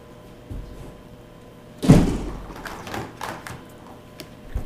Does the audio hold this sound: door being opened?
yes